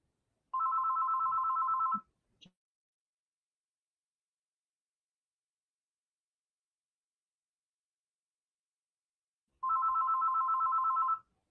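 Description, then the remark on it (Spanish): A telephone rings in two bursts of steady electronic trilling, the first around a second and a half, then a long silence before a second ring; a brief click sounds between them. “Me están llamando por teléfono, pero no quiero yo.”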